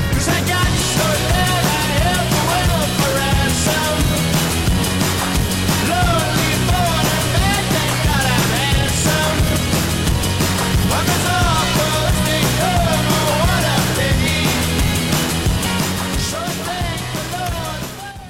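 A loud, full-band indie rock song, the first single from a band's third album, plays steadily with driving drums, layered guitars and a sung vocal line, dipping slightly in volume toward the end.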